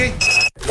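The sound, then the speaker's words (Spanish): A security alarm gives a short, high electronic beep as it's activated: one steady tone lasting about a third of a second, clear, followed by a brief silence. “Amor, activa la alarma, cierra la puerta y vamos, que se hace tarde.”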